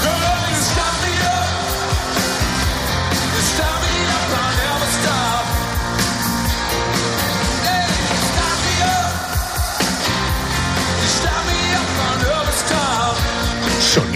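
A live rock concert at the Wanda Metropolitano stadium in Madrid on 1 June 2022, the opening of a European tour, plays loudly and continuously, with driving drums, dense electric guitars and sustained vocal lines, and crowd shouts faintly mixed into the full band sound.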